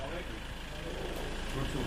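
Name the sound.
bus engine running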